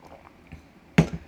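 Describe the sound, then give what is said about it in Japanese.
A single quick sip of liquor: mostly quiet, faint rustles, then one short, sharp gulping sound near the end with a brief softer tail. No one speaks. “ちょっとお茶を飲ませてください”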